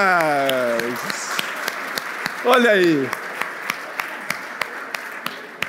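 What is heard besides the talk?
round of applause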